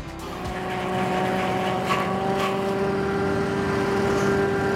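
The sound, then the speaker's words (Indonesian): A pineapple leaf fiber extraction machine runs steadily as fiber from the first extraction stage is fed back into it, a loud continuous motor drone with a strong tonal hum and faint scraping bursts, with no talking. “Setelah melalui proses ekstraksi tahap pertama, serat akan dimasukkan kembali ke dalam mesin.”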